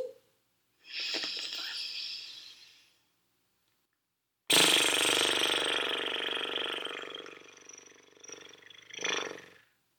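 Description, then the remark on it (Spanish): During a relaxation breathing exercise, a person releases air held in the belly out through loosely vibrating lips in a horse-like lip trill. There are two fluttering exhales, the second longer and louder, with no talking. “Retenemos el aire en nuestra pancita y soltamos por la boca, como haciendo el sonido de un caballo.”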